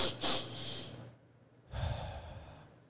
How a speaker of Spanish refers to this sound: estás experimentando ansiedad para aliviarlo, hay una técnica de respiración, ¿verdad? Y es súper fácil, ¿verdad? Es básicamente respirar dos veces rápido y los por la nariz y después lo sueltas por la boca, ¿verdad? Entonces haces como que así.